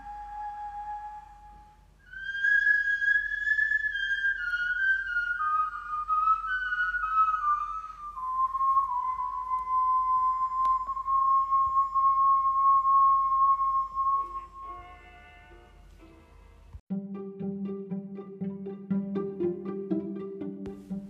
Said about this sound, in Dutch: En dat zou ook zeker de manier zijn waarop die fluit bespeeld wordt, zoals je hem nu hoort. Ehm, maar als dit inderdaad een instrument was, had het dus ongeveer qua klank zo geklonken.